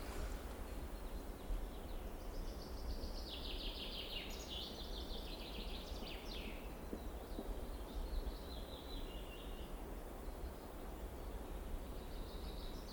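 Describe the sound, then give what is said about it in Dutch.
Chaffinches call and sing in a planted forest on an island, bright chirping phrases repeating over a steady rushing background of wind and leaves, with no one talking. “Je hoort nu vooral eh, de, de vinken roepen.”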